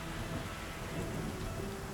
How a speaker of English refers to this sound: As they walked, it started to rain again.